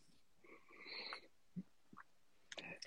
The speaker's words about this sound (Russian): Я дышу в третий раз. Передохнуть специально.